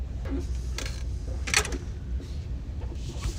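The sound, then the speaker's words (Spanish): A hotel room key card lock clicks as the card is placed on the lock and the room door opens: a few short mechanical clacks, the loudest a sharp clunk midway, over a steady low hum with no talking. “Ahí coloqué nuevamente la tarjetita sobre la cerradura, abrí la puerta y nuevamente entro al cuarto.”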